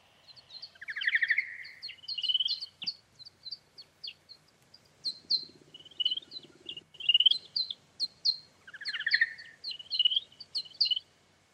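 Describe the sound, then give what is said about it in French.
A male bat's call to a female, slowed to a tenth of its original speed: a busy stream of sharp, bird-like chirps and warbling trills in quick bursts, with no voices. “ce son est la douce voix d'une chauve-souris mâle qui appelle une femelle, le tout passé au ralenti, un dixième de la vitesse originale”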